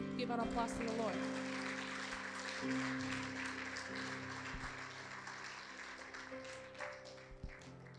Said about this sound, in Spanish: Uh, Denle uh, ese aplauso Señor.